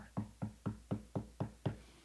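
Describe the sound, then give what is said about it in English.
Seven firm knocks on a wooden door in a quick, steady rhythm, evenly paced, with no voices alongside them; a professor knocking on a man's door. “Finally, one of the professors uh, comes to that place and he goes and knocks on his door.”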